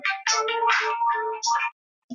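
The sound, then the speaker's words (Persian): A short melodic mobile phone ringtone, from a phone its owner forgot to silence, plays in bursts of bright, tonal notes, clear, then cuts off abruptly before a brief sound at the end. “ببخشید این من فراموش کردم که این صدای تلفنم رو قطع کنم یک لحظه”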